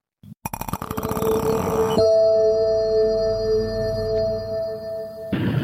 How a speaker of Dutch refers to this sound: Ja, dat was het geluid van eh, het vroegere geluid van de Bright YouTube filmpjes.